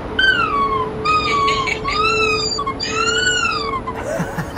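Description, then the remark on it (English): A voice imitates the eerie, wavering tone of a theremin, an instrument sounded by getting close to its antenna, singing a few sustained, gliding phrases that swoop up and down in pitch, loud, over a faint steady hum. “The theremin is crazy and next to it, an antenna, you know, touch it, just get close to it, and then it sounds like this.”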